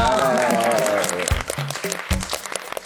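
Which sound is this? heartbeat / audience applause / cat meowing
audience applause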